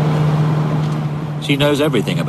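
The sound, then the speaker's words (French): A steady low engine drone and road rumble fill the inside of Madame Sagan's moving sports car, lent by the manufacturer, filmed for a 1989 BBC report, with a voice briefly cutting in over the hum near the end. “On est dans sa voiture.”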